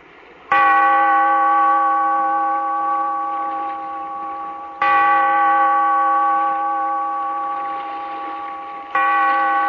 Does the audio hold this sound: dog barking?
no